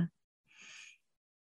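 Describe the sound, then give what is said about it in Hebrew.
A single soft, breathy deep inhalation lasting about half a second, airy, taken during a guided meditation, following a brief clipped bit of voice at the very start, then silence. “לקחת נשימה עמוקה,”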